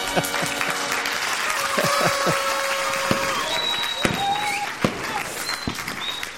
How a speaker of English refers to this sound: can we get like a massive round of applause? Maybe some fireworks?